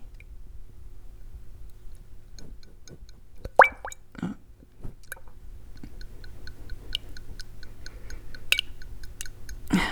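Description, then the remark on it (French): Sourdough starter being stirred in a jar, forming small bubbles: irregular wet squelches and soft plops mixed with light, quick clicks of a utensil against glass, over a low steady hum. “Donc là, en fait, quand je le mélange,”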